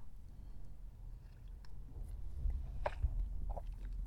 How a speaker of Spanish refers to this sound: Pausa para trago de café.